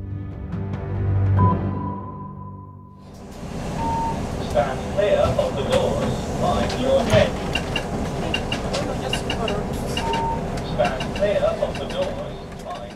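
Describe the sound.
Inside a city bus in Belfast, Northern Ireland: a low engine drone and a short electronic beep, then steady rumbling road noise as the ride continues, with passengers' voices chattering over it.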